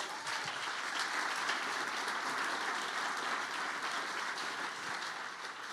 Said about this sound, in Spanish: Si usted le va a dar un aplauso.